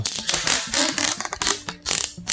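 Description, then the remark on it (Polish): Adhesive tape is pulled off a roll and applied in two layers, in several loud, crackling rasps with short pauses between the strips and a sharp tearing snap. “Dam dwie warstwy jednak, wiesz?”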